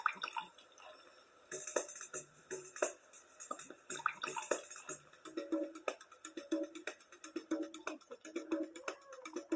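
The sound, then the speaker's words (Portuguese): Liquid glugs and splashes as it pours from a bottle, used as a sound in a music album track, an irregular run of bubbling plops and drips that quickens and thickens toward the end. “E aqui o pom pom pom do som do líquido caindo.”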